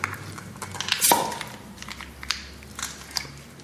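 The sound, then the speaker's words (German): A corked wine bottle being opened: crinkly, creaking twisting sounds build to a single sharp pop, followed by a few faint scratchy crackles, with no voices. “Jetzt darfst du eine aufmachen.”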